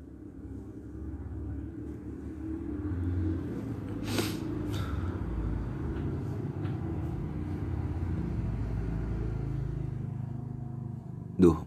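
Steady low engine rumble from motorcycles and their exhausts on the street beside a bedroom fills the background, with a couple of brief sharper bursts and a sudden loud hit near the end.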